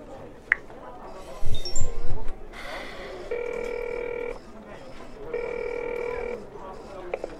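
A telephone rings twice with an incoming call from a journalist, each electronic ring lasting about a second with a short pause between, clear, after some brief rustling and bumping sounds.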